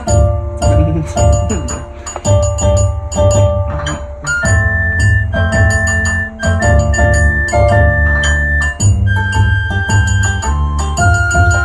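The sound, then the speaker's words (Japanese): The draft intro of a song: a loud, busy instrumental passage of twangy shamisen-style plucked notes in a quick rhythm, with a sustained flute melody gliding on top and steady percussion underneath; no one speaks. “もちろんねこのこの三味線風の弁弁の音と笛の音はもうちょっとちゃんとしたものを何かしらの形でアレンジしますけどこの曲的にね曲的にそう土台はこれでいいのかなっていうイントロのね。”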